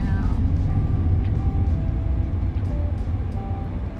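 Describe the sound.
Steady, heavy low-frequency road rumble from inside a car driving out to buy supplies under a blazing sun, continuous throughout, with a faint voice occasionally audible beneath the engine and tyre drone.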